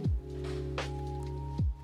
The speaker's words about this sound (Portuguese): Deixa eu tomar uma água aqui.